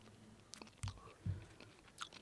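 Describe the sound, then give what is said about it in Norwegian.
Chewing of a spoonful of something hard and grainy, like long grains or crisp pasta, with a few crunchy bites and gritty crackles in an uneven rhythm, fairly quiet and with no talking. “Det, noe, det må tygges. Men det er hardt.”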